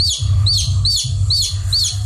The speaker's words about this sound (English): The baby should squawk and its parents will find it.